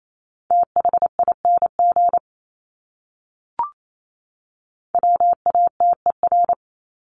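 Fast Morse code at 28 words per minute in a steady mid-pitched beep, rapid dots and dashes sent in two short bursts, separated by a pause of silence broken by a single brief click.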